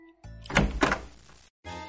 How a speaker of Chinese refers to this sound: 他有些不甘心，小心翼翼的打开门，走了进去。